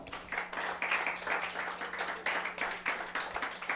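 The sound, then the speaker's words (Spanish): An audience at a Spanish-language church service applauds steadily as an offering of applause to the Lord, many hands clapping in a dense, continuous wash with brief surges, no one speaking over it. “Va, dele ofrenda de palmas al Señor pues con todo su corazón.”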